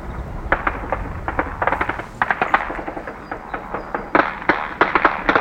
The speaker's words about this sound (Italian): I russi sono a 500 metri, quindi sparano anche con i Kalashnikov, quelli che state sentendo sono colpi di Kalashnikov oltre ai mortai e all'artiglieria.